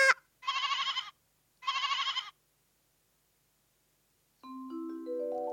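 Two quavering sheep bleats, each about half a second, clear with a short pause between, followed after a silence by a bright rising musical chime figure.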